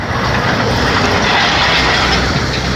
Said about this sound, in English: And I, as, as trucks go rattling by, as trucks go rattling by, start of a, a beautiful poem